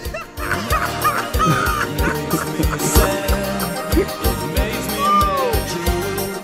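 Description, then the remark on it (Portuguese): Loud, rapid horn honks repeat in a choppy, irregular rhythm, layered over a busy, cluttered wash of noise that runs through the whole stretch. “Ô velho, você só tem que explicar pro pessoal que esse som da buzina tá vindo de dentro de você.”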